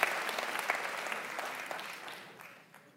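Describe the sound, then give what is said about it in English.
An audience claps in a dense, steady patter of many hands, fairly loud at first and gradually thinning and fading out over about three seconds, with no talking. “Oh, you're you're kind of clapping”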